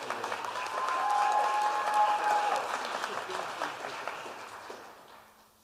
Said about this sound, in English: Let's give a round of applause for our CAC Excellence and Leadership